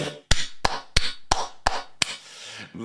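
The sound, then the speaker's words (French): Six sharp, evenly spaced claps applauding a live song performance ring out at a slow, steady pace, fairly loud, with no voices alongside them. “Ça mérite des applaudissements.”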